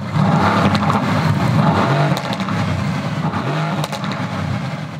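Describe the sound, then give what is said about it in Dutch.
A powerful AMG GT 4-liter twin-turbo V8 engine revs loudly, a steady deep roar with rising and falling pitch sweeps, no voices over it. “Dat is de GT.”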